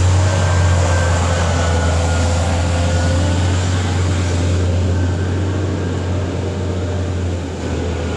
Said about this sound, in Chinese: 这个呀是街头的清洁车正在打扫海边大道，所以呢就是清洁车的呜呜的声音伴着海浪的声音。